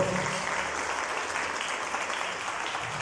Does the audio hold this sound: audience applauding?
yes